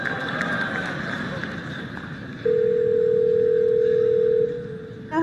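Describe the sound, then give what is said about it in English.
A single long ringback tone of an outgoing phone call placed by the Google Assistant to a real hair salon to book a haircut appointment, steady and fairly loud for about two seconds, over a noisy background hum. “So, what you're going to hear is the Google Assistant actually calling a real salon to schedule the appointment for you.”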